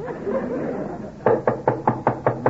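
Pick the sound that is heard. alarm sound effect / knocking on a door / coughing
knocking on a door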